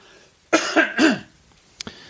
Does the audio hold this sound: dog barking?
no